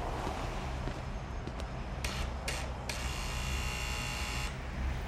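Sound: doorbell buzzer ringing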